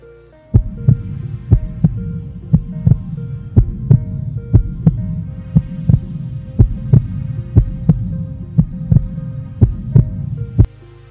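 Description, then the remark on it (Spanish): A steady heartbeat thumps at an even pace, roughly once per second, each pulse loud, over a low continuous hum with no voices. “Ahora les pido que con esto en mente volvamos a tomar nuestro pulso, contemos las 10 pulsaciones y pensemos en esto.”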